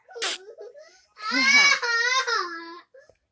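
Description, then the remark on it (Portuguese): A young child, a cousin, cries: a short breathy gasp, then a sustained, wavering high-pitched wail that rises and breaks before trailing off. “Meu é primo tá chorando.”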